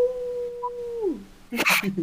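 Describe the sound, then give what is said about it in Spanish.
A person imitates a howl with one long, steady, moderately loud note that slides downward at the end, followed by a short burst of noisy vocal sound. “Y empezó a aullar así, ¡Au!”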